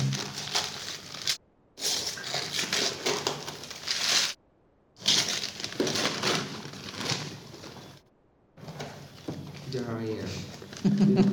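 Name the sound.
unwrapping a package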